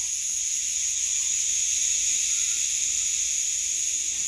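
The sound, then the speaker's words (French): A dense, continuous chorus of cicadas fills the air with a bright, steady buzzing drone, loud and unbroken throughout, with no voices present. “Et on commence par ce tapis de belles cigales qui sature l'espace sonore”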